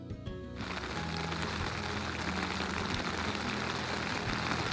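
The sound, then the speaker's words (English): Steady rain patters on tent fabric, heard from inside the tent, a dense, continuous drumming of drops that stays even throughout, with no voices. “Some rain is coming down again, but you know what? When you're inside your tent, it doesn't matter. It's nice to hear the pitter patter.”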